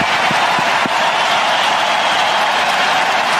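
A big arena crowd roars and applauds in a loud, steady wash of cheering and clapping that fills the whole space without letting up, welcoming back Patrick Kane as he skates around under a spotlight, with a few low thumps near the start.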